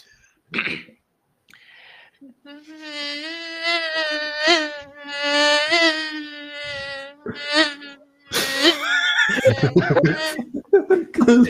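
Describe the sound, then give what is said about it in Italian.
A voice imitates a mosquito with a sustained, wavering, nasal buzz that rises and dips for several seconds, fairly loud, then breaks off into bursts of laughter. “so fare una buona imitazione di una zanzara.”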